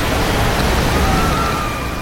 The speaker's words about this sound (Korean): 어마어마한 가라가라 나이아가라 폭포에 도착했습니다 여러분 조심하십시오 예 처음 와보는 곳일 수 있습니다 어마어마한 폭포수의 소리들 어, 지금 소리 들으면